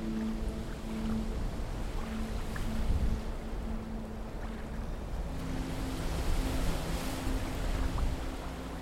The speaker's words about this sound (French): Vous entendez le bruit du sable qui se déplace avec lenteur et le clapotis des vagues.